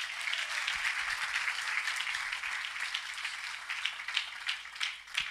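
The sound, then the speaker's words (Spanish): A church audience applauds the Lord during a sermon, a dense wash of many hands clapping at a fairly even level for several seconds, with a few sharper claps standing out near the end. No one speaks. “Aleluya, denle ese aplauso al Señor.”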